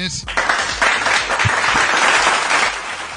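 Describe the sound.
A crowd breaks into sustained applause, a dense, steady wash of many hands clapping at once, loud throughout the few seconds, with some voices mixed underneath.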